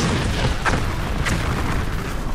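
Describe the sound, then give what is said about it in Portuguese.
Deep, rumbling booms of several explosions in a canyon roll on continuously, collapsing its rock walls, with a couple of sharper blasts cutting through the low thunder. No voices. “Quando vocês se voltam para pro canyon de onde vocês vieram, vocês escutam várias explosões.”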